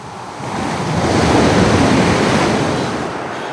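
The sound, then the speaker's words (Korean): Strong sea wind on an overcast day rushes over crashing waves, a broad, roaring wash that swells to a loud peak in the middle and eases off toward the end, with no voices. “강하게 부는 바닷바람이 심란하게 만들었다.”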